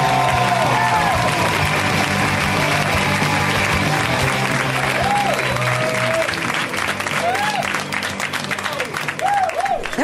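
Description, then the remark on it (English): Sustained crowd applause welcoming Jimmy Pardo to the show fills the whole stretch, a dense steady clatter of clapping with scattered whoops and cheers rising over it, loud and continuous for about ten seconds. “Let's hear it now for Jimmy Pardo. Give it up for Jimmy.”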